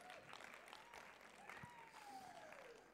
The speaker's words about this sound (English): Thank you, worship team. You guys are awesome. How cool are they? Let's give our band a round of applause.